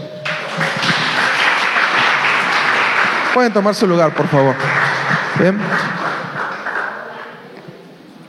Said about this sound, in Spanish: Denles un fuerte aplauso.